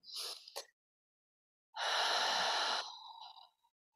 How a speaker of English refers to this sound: So let's take a clearing breath first. We inhale and exhale.